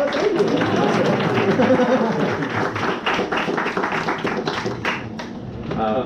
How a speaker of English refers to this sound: Actually, that's an epistemological problem because then I, am not sure if you're gonna applaud because it's my birthday or the presentation was good.